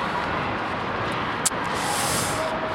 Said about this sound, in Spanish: Espera, espera que viene un coche. Ay, Cuidado.